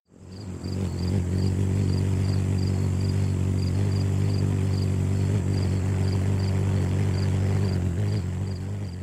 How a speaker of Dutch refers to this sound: Ja, jongens, jullie hoorden het uh, zwoele geluid van een kolibrie. Mm, dat was het. Ja, zoemend ook. Het mm. brommende geluid dat een kolibrie maakt als, eh, als hij of zij vliegt.